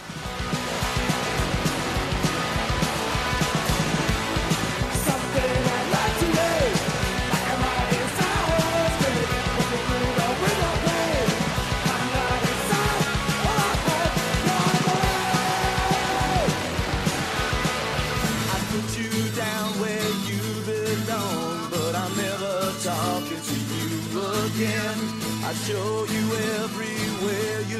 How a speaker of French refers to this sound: Alors je vais vous faire écouter un petit medley concocté par mes petits soins pour vous montrer la variété musicale de la bête.